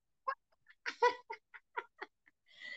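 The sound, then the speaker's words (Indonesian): A bird calls in a quick series of short, chirping notes, about eight bursts in under three seconds, ending in a longer, rougher call. It sounds quiet, with no talking. “Tuh burung jadi suara dua, guys.”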